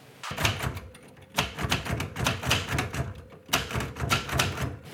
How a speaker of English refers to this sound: Get some paper. Put a piece of carbon paper behind it, then add another piece of paper and roll it into the typewriter. Then type.